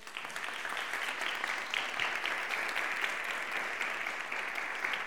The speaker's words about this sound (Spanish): Un aplauso para ella.